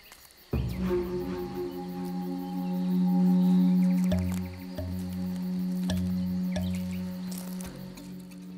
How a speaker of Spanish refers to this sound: En este territorio donde el hombre nunca ha estado tan cerca del mundo salvaje, el bramido del venado es la reunión importante de los enamorados de la naturaleza, y de los fotógrafos de animales.